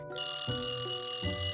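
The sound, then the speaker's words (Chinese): An alarm clock, set for twelve o'clock at night and placed outside the door, bursts into a shrill, continuous metallic ring that starts abruptly and keeps going loudly without pause, with no voices present. “当他正要睡着的时候，闹钟声啊就尖声响起了。”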